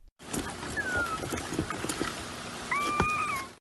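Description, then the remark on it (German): Tiny Tabasco turtle hatchlings give thin, high whistling chirps, one short call early and a longer wavering pair near the end, over a steady rushing, watery background noise. “Hier sind kleine Tabasco-Schildkröten zu hören also wirklich kleine.”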